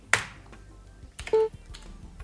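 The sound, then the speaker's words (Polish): A Slack mention notification: a sharp tap at the start, a few faint clicks, then a brief, soft mid-pitched chime lasting a fraction of a second. No one speaks. “No i tak jak mogliśmy usłyszeć. Dostałeś wzmiankę jest, y, tak zwaną, że odwołuje się”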